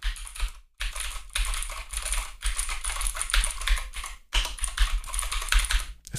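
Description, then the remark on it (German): Fast, continuous typing on a clicky mechanical keyboard with high keys and blue switches, with sharp keystrokes running together and a couple of brief pauses; no one speaks. “Die Tasten sind so schön, sind schön hoch und vor allen Dingen, hört mal, ich tippe jetzt mal, ich weiß nicht, ich hoffe, ihr kriegt das mit.”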